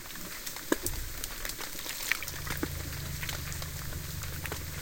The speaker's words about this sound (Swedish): Men vi är under vattnet nu. Ja. Det, det låter lite som en brasa också.